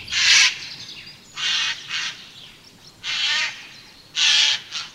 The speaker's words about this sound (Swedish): Och då, då hör mhm. man ofta, det är mycket trafik på nötskrikorna och så hör man ofta det här hesa skränet då som är deras mest karaktäristiska läte.